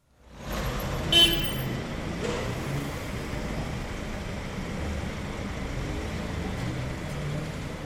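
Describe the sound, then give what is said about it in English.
Steady roar of busy street traffic with engines rumbling continuously, and a short car horn toot near the start cutting through the dense, moderately loud ambience. “Or a busy street.”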